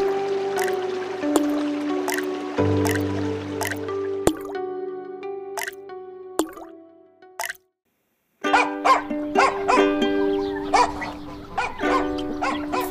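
Corn kernels being shelled by hand by a grandmother and her granddaughter: irregular dry clicks and ticks over sustained tonal background sounds, with a brief pause of silence partway through before the clicking resumes.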